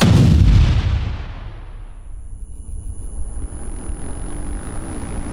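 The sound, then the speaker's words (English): A sticky bomb thrown at an armored vehicle blasts against it in one loud boom, then fades over a second or two into a low, steady mechanical rumble. No voices. “They're tossing something at us. Damn it! Sticky bomb.”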